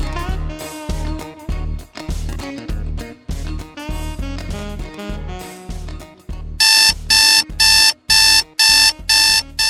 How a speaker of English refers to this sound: Do You know what that sound is? That's your wake up call.